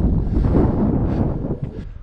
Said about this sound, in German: Hier ist auch gerade sehr windig, ne?